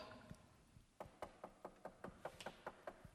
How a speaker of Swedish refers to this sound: knackar de kanske på i stallet, eller hur man nu gör man vi ska in i ett stall.